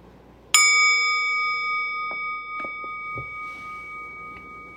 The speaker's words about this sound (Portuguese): Então desliza na inspiração, se aquieta no centro, não precisa se mexer correndo quando o sino soar.